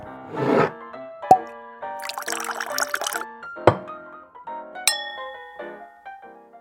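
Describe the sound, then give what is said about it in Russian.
Glasses clink with bright, ringing tones, and a drink is poured into a glass between the clinks. Several sharp taps echo, with no talking. “Давайте свой бокал сюда и начинаем.”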